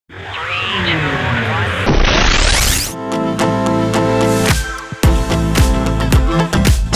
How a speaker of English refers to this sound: Let's get into the usual intro music.